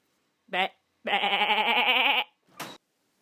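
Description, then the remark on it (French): Sheep bleating three times: a short bleat, then a long, quavering one, and another brief bleat after a pause. “j'attends évidemment à chaque fois le ben, final de, des moutons.”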